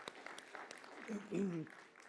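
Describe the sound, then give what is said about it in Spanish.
An audience claps in a steady, crackling patter at a fairly soft level, applauding a couple celebrating 34 years of marriage, while a man's voice speaks briefly over the applause partway through. “Gracias, sí, denle el aplauso, denle el aplauso.”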